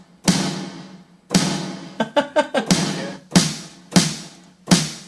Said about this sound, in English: That's, that still doesn't sound right to me, that snare.